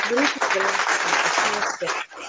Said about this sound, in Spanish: para la rola, para la rola son estos aplausos.